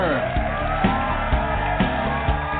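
A crowd cheering sound effect on the radio show Rated G Radio: cheers and whoops in a steady, dense roar that stays loud throughout, with regular thumping accents about every half second underneath.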